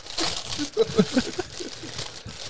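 Crinkly plastic rustling, a burst of crackling handling noise with brief voiced sounds mixed in, as a plastic bag holding a gift is opened and unwrapped.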